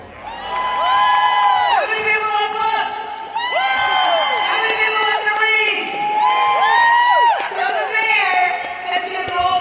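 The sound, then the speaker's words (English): A large crowd cheers and whoops loudly and continuously at an outdoor American Federation of Teachers book giveaway event in Cleveland as AFT President Randi Weingarten addresses them, many overlapping voices rising and falling in excited shouts, with no break in the noise. “Here, AFT President Randi Weingarten addresses the crowd.”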